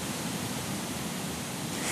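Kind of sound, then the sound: nature, flowing brook water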